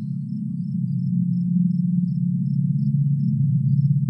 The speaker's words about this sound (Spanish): Es de noche y estás en un bosque.